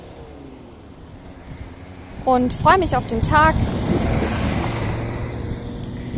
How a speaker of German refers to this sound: Es war gerade ein Auto, das vorbeigefahren ist, was ziemlich laut war. So, jetzt ist es aber wieder etwas leiser und ich rede weiter.